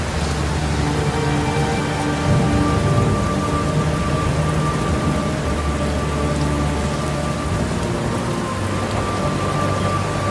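loud thunderclap with rain

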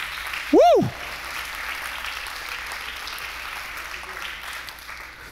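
audience applauding

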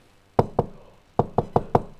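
knocking on a door

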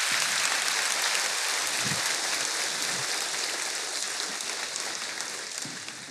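audience applauding

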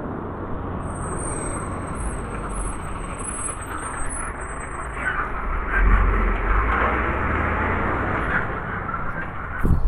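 airplane flying overhead

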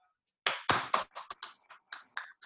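applause

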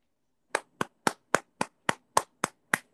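applause

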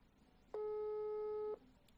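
phone call ringing tone

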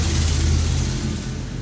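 motorcycle passing by

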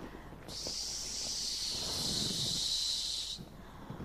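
strong wind blowing

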